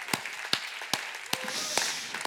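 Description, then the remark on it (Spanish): An audience applauding God, with a few sharp, evenly spaced claps standing out over a soft, steady wash of clapping. The applause is fairly quiet. “vamos a darle un buen aplauso a nuestro Dios?”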